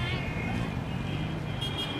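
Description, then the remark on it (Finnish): Continuous dense roar of city traffic in Mumbai, India, engines and road rumble blending into a steady wash, with a hint of horn-like tones and muffled voices beneath. “Liikenneruuhkia, ilmansaasteita ja melua”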